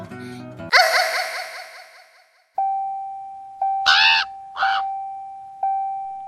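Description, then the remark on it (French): A voice imitates exaggerated hentai-style moaning: first a long, loud, drawn-out wail that fades, then two short, sharp cries broken up by steady electronic beep tones. “Je sais faire les bruits de hentai”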